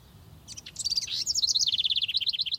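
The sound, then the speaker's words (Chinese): Birds chirp and tweet in a park in a steady stream of quick, high-pitched notes, rising into a rapid repeated trill toward the end, with a soft low rumble underneath and no voices. “我们这一次又来到了公园，可是啊，我们不是要来听鸟叫声的，我们是要来找找看，在公园里面有其他的声音”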